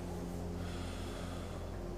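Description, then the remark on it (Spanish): A slow, deliberate breath drawn in and then let out, fairly quiet, with a soft, airy rush and no talking. “Pero me gusta esa interpretación que dice que estas cuatro letras es el nombre de la respiración, o es el sonido, perdón, de la respiración. Cuando uno respira hace”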